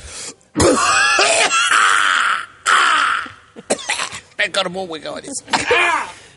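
A series of harsh, rasping coughs and throat-clearing hacks, loud: a few long, strained bursts followed by a quicker run of shorter, choppy coughs, from a shaman on entering a dirty temple hall.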